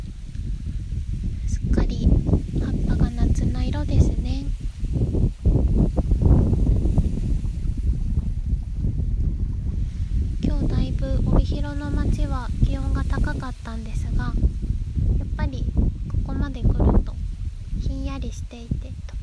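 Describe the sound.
Steady wind rumbles and buffets the microphone outdoors by Lake Shikaribetsu, a constant low roar running beneath a person talking throughout.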